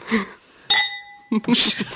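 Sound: wine glasses clinking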